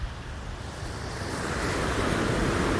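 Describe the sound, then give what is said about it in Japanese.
A steady wash of surf noise swells gradually louder over a few seconds, like waves rolling in and breaking on a shore in a video game, with no voices. “また波がなんかすごいあれなのねこう時間が経つと波の来る場所が変わってくるっていうかすごい波がこっちまで来ちゃったのでちょっと移動します”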